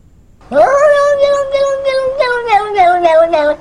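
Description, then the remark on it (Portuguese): A single loud, drawn-out cat meow stretches into a wavering yowl lasting about three seconds, clear with nothing else around it. “Ah, nem, gente, esses gatos estão insuportáveis com esse negócio deles.”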